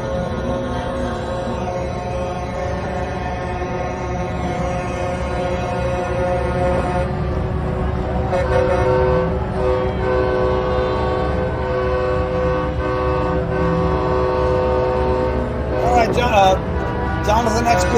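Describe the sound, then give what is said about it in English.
A loud, continuous chorus of horns blares from a convoy of many cars at a rally after they park at night, the overlapping tones sustained without pause over a steady rumble of traffic, with faint voices mixed in. “They're all honking horns and everything.”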